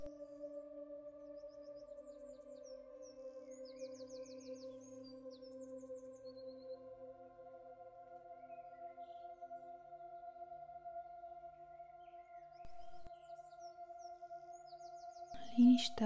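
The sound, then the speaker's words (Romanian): Soft, faint bird chirps and short trills flit high above a steady, sustained droning tone, coming in scattered bursts early on and again near the end. “se aude sunetul unor păsări. Tu auzi cum cântă ele.”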